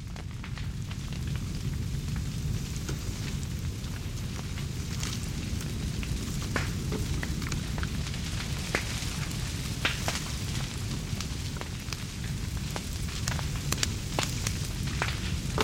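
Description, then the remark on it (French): A fire crackles steadily on its own, with irregular sharp pops and snaps over a low, constant roaring rumble, moderately loud throughout. “Oui, il crépite. Euh, qu'est-ce qui peut être des camps Qu'est-ce qui peut être de forêt Et qu'est-ce qui peut être de la passion bien entendu, les feux”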